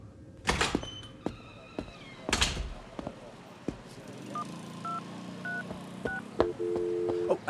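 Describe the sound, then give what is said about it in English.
A phone number is dialed on a keypad: a quick series of short electronic touch tones, then a longer steady tone, preceded by a couple of loud handling clunks. “I have to make a phone call.”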